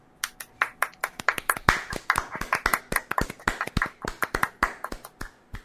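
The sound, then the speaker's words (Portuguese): A small audience applauds a speaker, with sharp, irregular claps from several people overlapping in a steady patter for several seconds, moderately loud, with no talking. “Queria pedir mais uma, vez, uma salva de palmas.”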